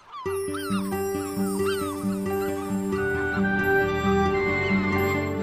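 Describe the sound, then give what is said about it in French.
Repeated mewing herring gull calls in Paris cry out over a steady bed of sustained, droning musical tones, the calls overlapping in a loose, irregular pattern at moderate loudness throughout. “Aujourd'hui, le goéland argenté et la moitrieuse.”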